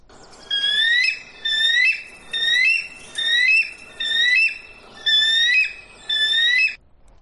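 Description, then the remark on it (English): A bald eagle calls in seven quick, evenly spaced bursts, each a string of thin, high-pitched, gull-like squealing chirps, clear with no talking. “And my best impression of an eagle would be go listen to a seagull.”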